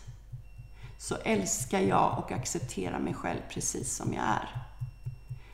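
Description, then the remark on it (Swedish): Soft, steady tapping of fingers against the outer side of the hand, at the so-called karate point, during a tapping exercise for anxiety; a quick even rhythm that runs throughout, alone at first and then continuing under a person speaking calmly. “Och då tar du ångest och går in i den känslan och så knackar du på utsidan av handen som kallas för karatepunkten.”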